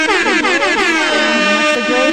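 air horn sound effect

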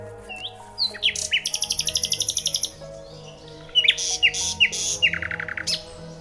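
nightingale song

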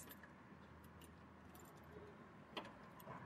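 keys jangling

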